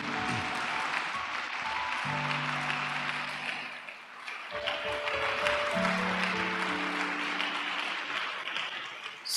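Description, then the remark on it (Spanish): An audience breaks into sustained applause given to God, a dense crackle of many hands clapping for several seconds, with a held musical tone sounding steadily underneath. “Si de repente, si quiere dar el aplauso a Dios, déselo.”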